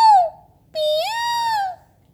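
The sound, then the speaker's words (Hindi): A recorded peacock call played at a park: a short, sharp cry, then a longer, loud wailing note that rises and falls before cutting off. The calls are clear, with no talking. “ये तो मोर है आ, आ, आ।”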